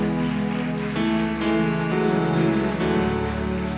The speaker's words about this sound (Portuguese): Pode aplaudir que ele merece.